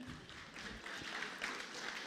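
A crowd applauds steadily for about two seconds, a dense, continuous patter of many hands clapping at once, fairly quiet, with no voices standing out.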